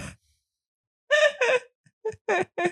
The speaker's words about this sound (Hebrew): את מפהקת במיקרופון.